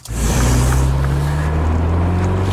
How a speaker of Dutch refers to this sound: Wouter test de Mini John Cooper Works Cabrio